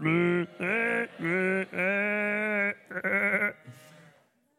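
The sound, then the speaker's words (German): An audience loudly imitates sheep together, letting out a series of drawn-out, wavering bleats in quick succession before trailing off into a shorter broken bleat and quiet. “Die machen Lärm. Machen wir alles zusammen. Also eure beste scharfe Geräusche.”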